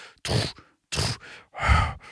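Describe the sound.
A voice imitates labored breathing heard alongside the steps of something walking on two feet in snow: three heavy, breathy huffs in a slow, steady rhythm, fairly loud, with short pauses between them and no words.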